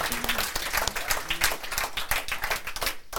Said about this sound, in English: That was a better clap given.